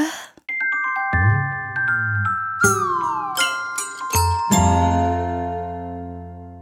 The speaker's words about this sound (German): Hey, kennst du diese Musik? Das ist unsere Kuschelmusik. Drei kleine Noten, die flüstern.